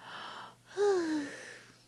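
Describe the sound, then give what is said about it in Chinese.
A small, acted-out yawn during a story read aloud about a child who does not want to go to bed: a breathy inhale, a brief pause, then a short voiced sigh that slides downward in pitch and trails off softly. No words are spoken. “”然后我打了个哈欠，”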